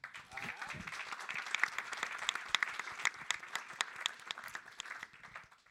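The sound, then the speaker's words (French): An audience at the L2P Convention conference applauds steadily for several seconds, a dense wash of many hands clapping with a few sharper claps standing out, lively throughout. “On peut faire un tout petit peu de bruit pour eux déjà, parce que...”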